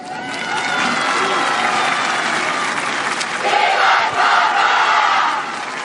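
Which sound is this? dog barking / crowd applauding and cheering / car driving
crowd applauding and cheering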